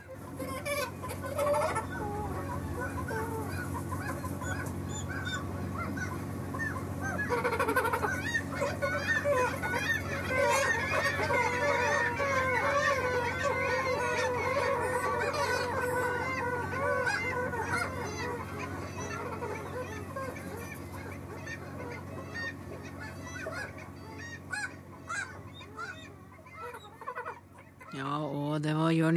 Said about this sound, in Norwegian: Det er en dag hvor det ligger et flak på 40 000 fugl utpå vannet.